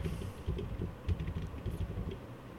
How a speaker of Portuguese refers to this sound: Confesso que eu olhei pro teclado e comecei a colocar palavras, letras aleatórias.